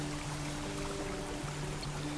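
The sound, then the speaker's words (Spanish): Water of a waterfall falling from between rocks in green natural surroundings flows and rushes steadily in an unbroken wash of sound at moderate volume, with faint sustained low tones humming underneath and no one speaking. “De repente escuchas el sonido de agua.”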